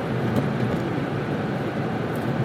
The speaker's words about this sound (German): Und deswegen dachte ich, nehme ich jetzt das aus dem Auto auf.